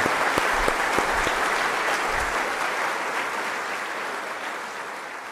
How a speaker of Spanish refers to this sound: Y quiero que por favor todas nuestras catequistas las recibamos con la alegría y con el orgullo de un fuerte aplauso a nuestras catequistas. Por favor.